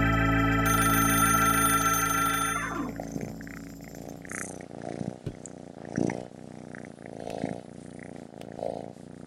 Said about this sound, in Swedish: Ja, alltså det där är ju ett ljud som man ganska ofta hör här mm. när man vaknar. Och det är ju en liten kattunge som ligger och purrar på kudden. Purrar som det heter ja.